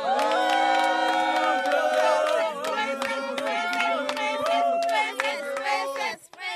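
A crowd of girls and boys cheers and shouts in high, overlapping voices while clapping rattles underneath, applauding their princess candidate in a school student president election, loud and sustained for several seconds before briefly dropping off near the end.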